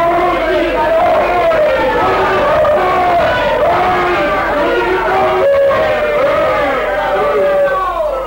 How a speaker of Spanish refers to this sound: Ante el palacio de Pilatos, la plebe gritaba.